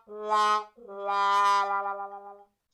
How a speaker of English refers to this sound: Put a sad trombone noise here.